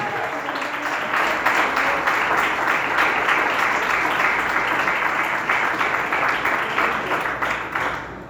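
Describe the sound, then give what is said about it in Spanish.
Sustained applause from a crowd for Christ, a dense, steady wash of many hands clapping at once that stays loud throughout and eases slightly at the very end. “Alguien diga gloria a Dios, por favor, y denle un aplauso a Cristo que vive para siempre.”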